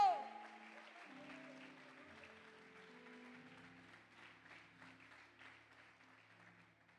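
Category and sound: crowd, audience applauding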